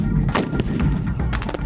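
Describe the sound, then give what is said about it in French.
Several sharp, loud blasts of dispersion stun grenades exploding on the ground in quick, irregular succession during clashes between protesters and police, ringing out over a constant heavy rumble of background noise. “avec des euh, grenades de désencerclement qui explosent au sol.”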